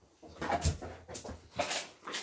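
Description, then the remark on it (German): A dog whimpers softly in a few short, high, whiny bursts, fairly quiet, with faint background noise between the cries. “Ja, der Hund geht gleich raus, ja.”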